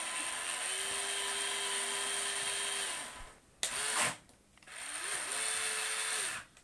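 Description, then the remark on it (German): An electric slot car motor whirs at a steady high pitch as the car is test-run on the track, cuts out briefly with a couple of clicks and rattles, then spins up again and runs on before stopping. “Also ich muss es testen mal erst.”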